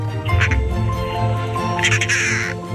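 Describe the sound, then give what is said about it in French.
A harsh, rattling call of a very colourful bird sounds in two grating bursts, loud, with a raspy, buzzy texture rather than a melodic song. “c'est une crécelle un peu, hein un cri un peu rauque.”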